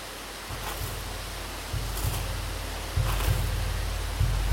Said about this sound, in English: Oh no! Why didn't you say there was another waterfall?